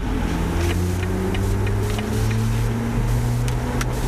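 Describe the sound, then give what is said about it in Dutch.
An electric BMW i4 drives along steadily, a broad rush of road and wind noise under a low synthetic hum whose pitch slowly climbs and shifts as it accelerates; no one speaks. “Ja, en ik heb een fatsoenlijke elektrische BMW getest, de i 4 en die klinkt zo.”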